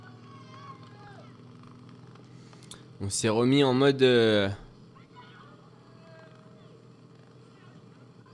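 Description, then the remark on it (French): A low-flying helicopter hums steadily throughout over a cycling road race, 42.7 km from the finish line, while a man talks over it and a louder voice briefly rises in the middle. “L'hélicoptère qui vole très bas, hein, j'ai l'impression.”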